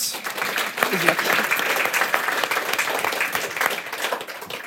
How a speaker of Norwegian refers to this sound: Og hennes seneste utgivelse heter passende nok for kvelden 'En moderne familie' kom ut i høst og vant bokhandleprisen – og det fortjener en ny applaus.